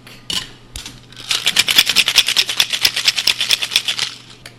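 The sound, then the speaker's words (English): A couple of clicks, then a cocktail shaker holding a cognac cocktail is whip shaken in a fast, steady rhythm for about three seconds: roughly twenty bright, rattling strokes, loud and even, with no talking. “Nice. Whip shake.”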